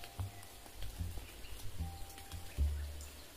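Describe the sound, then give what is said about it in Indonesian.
A brief light drizzle falling, a soft steady hiss with scattered drips and a few dull thuds of drops landing, with no voices. “Ya, ini pasti gerimis yang sebentar.”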